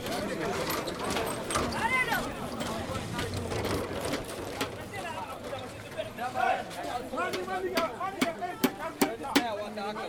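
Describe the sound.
Sharp knocking and cracking strikes as women break clay stones, the blows coming irregularly and growing quicker toward the end, over a steady murmur of voices and chatter.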